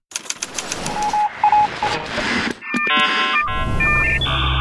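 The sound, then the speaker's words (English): A mobile phone rings with a bright electronic melody of stepped tones, loud, preceded by a burst of rapid clicking and short beeps. No one speaks. “Wait, does your phone ring?”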